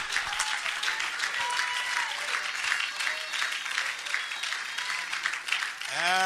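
A church audience claps loudly and steadily in praise to the Lord, a dense wash of many hands, with scattered shouts and voices rising within it before a single voice cuts in at the end.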